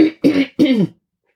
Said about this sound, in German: Jetzt muss ich mich mal eben wieder räuspern.